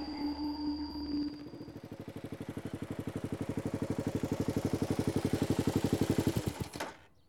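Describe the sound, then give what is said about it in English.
A large ferry engine idles at the dock with a steady low hum that turns into a fast, even chugging throb, loud, before cutting off abruptly near the end. The ferry goes over to Bainbridge Island. “So I'm about to jump on the ferry over to Bainbridge Island and talk to David Korten.”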